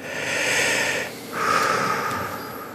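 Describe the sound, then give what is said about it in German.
A deep breath drawn in and then let out after a scare, two long airy rushes separated by a brief pause, fairly loud with no talking. “ich weiß, nach diesem Schreck mit dem, äh, sie müssten was abnehmen, musste ich erstmal ganz tief durchatmen.”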